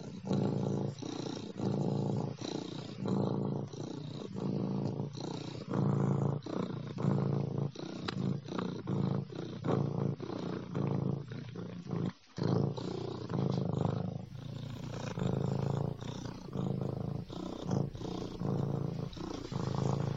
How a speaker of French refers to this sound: Et quand on leur donne à manger, ils crient beaucoup et ils font beaucoup de ronron. Tu veux la pâté Quelle hein Et aussi le matin, quand ils viennent me réveiller, ils ronronnent et j'aime beaucoup.